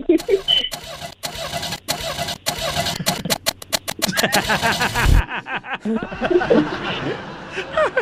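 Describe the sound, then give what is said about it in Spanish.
Someone vocally imitates the engine of a broken-down car cranking over and over without catching, a rhythmic sputtering that speeds up, then breaks off into laughter and voices talking. “Y, y, entonces vamos a, aquí a dramatizar cuando el carro no encendía porque estaba descompuesto, ¿eh?”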